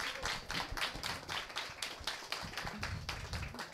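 An audience at a publishing-industry panel applauds a promising editor, a dense patter of many hands clapping steadily at moderate volume from start to finish, with no one speaking over it.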